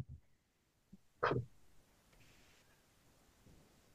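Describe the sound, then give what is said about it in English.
A single sharp clap of thunder from a storm outside, quite close, bursts out about a second in, then fades into a low, lingering rumble, with faint rain-like background noise and no one talking. “Oh, there's thunder outside where I am.”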